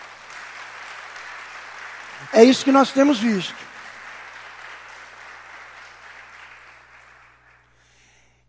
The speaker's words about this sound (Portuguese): Louvado seja o nome do Senhor. Você pode aplaudir no nome de Jesus, amado?